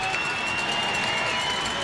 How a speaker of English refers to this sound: Listen at this applause for him coming in. One thing Brentwood does, and I applaud them for it, they are really supportive of their football team.